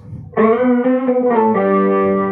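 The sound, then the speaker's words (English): A guitar tone processed by a polyphonic octave effect pedal, thick stacked harmonics sustaining loudly with slight pitch shifts, entering abruptly after a brief quiet moment and holding steady to the end. “There's your polyoptophonic.”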